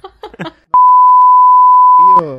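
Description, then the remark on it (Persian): Someone talks briefly, then a loud, steady censor beep holds a single pure tone for about a second and a half, covering speech, before the voice comes back. “البته این چیزی که من گفتم روش بوغ بود و قرار تو اپیزودهای سه چهار تا اپیزود آینده بشنوین ما بوغ گذاشتیم که شما قافلگیر بشید”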